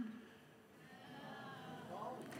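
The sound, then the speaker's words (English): A crowd of teenagers lets out a short, collective groan on request, a blended mass of low droning voices rising and falling together for a couple of seconds. “So if you're in a teenager here and you're currently sitting going, Where's New Life Youth? Why is New Life Youth not happening? Just give me a really quick groan.”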